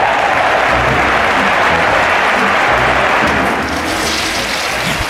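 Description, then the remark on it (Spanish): Steady, dense applause from a crowd for a bathroom toilet with purified water jets and a dryer, many hands clapping at once in a continuous loud wash that eases slightly toward the end, with no one speaking. “El inodoro también tiene una secadora, por supuesto, pero necesita un aplauso ese baño, por favor, denle un aplauso al baño.”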